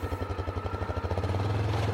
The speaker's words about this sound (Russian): Леонид ведет снегоход по широкой дуге. Нам нужно набрать скорость, чтобы проскочить несколько десятков метров на леди.